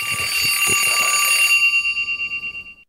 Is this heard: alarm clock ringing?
yes